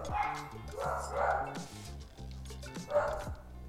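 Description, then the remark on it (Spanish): Dogs bark in a few loud bursts spread over a few seconds, with sharp yips mixed in and a low steady hum underneath. “Perros. Perros.”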